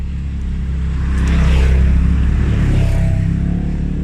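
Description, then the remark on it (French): A loud rally-style 4x4 engine roars steadily as the vehicle crosses a forest. Its low rumble swells into a stronger rev around the middle, then eases slightly, with no voices over it. “Je ne sais pas quoi penser de ces sports non plus, cette espèce de 4x4 de rallye. J'en ai déjà croisé. Ça fait beaucoup de bruit.”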